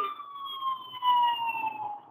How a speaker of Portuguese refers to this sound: essa ambulância aí.